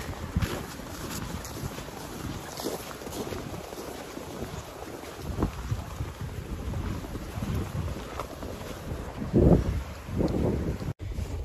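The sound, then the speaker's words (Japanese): Steady rushing of the Toyohira River fills the background while footsteps crunch through about 15 to 20 centimetres of fresh snow on the riverbank at an unhurried pace at 7:10 in the morning, with some wind buffeting. “えー、20センチ近いかな ?20 までいかないかなやっぱ15センチかなえー、新しい雪歩くのは気持ちいいですね。川の音と、雪の音と、聞こえますかね”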